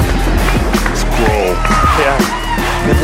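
A steady, loud wash of audience applause for a guest being introduced, dense with overlapping claps, while voices carry through it and a few sharper hits stand out.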